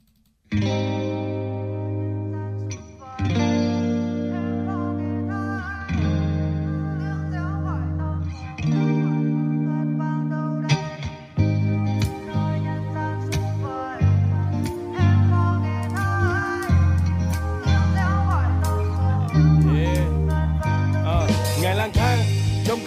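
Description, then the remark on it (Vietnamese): A listener-requested song plays on the radio at steady, full volume: effect-heavy electric guitar chords ring out in sustained phrases, then a busier band section with drums builds through the second half. “Xin mời quý vị chúng ta sẽ cùng lắng nghe ca khúc tiếp theo.”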